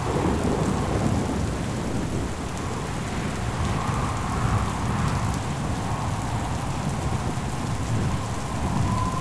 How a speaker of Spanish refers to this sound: Comienzas a oír unos inquietantes truenos a lo lejos.